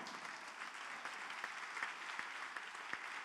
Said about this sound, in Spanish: Si usted lo cree, le da palmas al Señor.